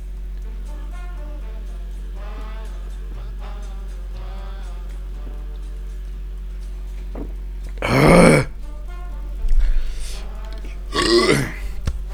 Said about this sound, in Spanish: Voy a darle un traguito a mi caguamita, dispensen. Es que cada. Me lo recetó el doctor cada 5 minutos, ya llevo hablando 10 y pues no, no se vale. Va, ración doble.